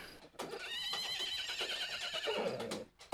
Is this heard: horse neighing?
yes